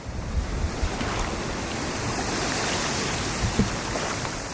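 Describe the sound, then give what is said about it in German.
Steady rushing wind and moving water of the Colorado River, between California and Arizona, fill the scene while kayaking into a headwind, with gusts buffeting the microphone in low thumps. The sound is continuous and fairly loud, with no voices. “Der Wind kommt von vorne, so sehr, dass uns die Strömung kaum helfen kann.”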